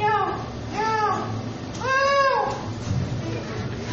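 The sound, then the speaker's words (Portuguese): A person imitates a cat's meow, producing about three drawn-out, rising-and-falling meows. The final one is the longest and loudest, heard against a faint background murmur. “Mas você imaginou você ensinando o cachorro assim, ó, cachorro, você tem que latir, vai, Alguém que tem cachorro ou tem gato, né?”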